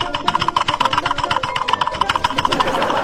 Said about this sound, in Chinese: 啪，来打，发发发发发发，来键盘猛按。来，注意我键，注意我按键盘的声音啊，猛按啊